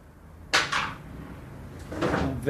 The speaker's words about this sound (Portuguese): Tá ventando aqui, derrubando as coisas.